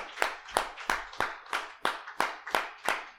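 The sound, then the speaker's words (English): A seated church audience claps in unison, giving the Lord a hand clap of praise: about ten sharp, crisp hand claps on a steady, fairly quick beat, each with a brief ringing tail, with no voices. “So, uh, as you're seated, would you just give the Lord a big hand clap of praise?”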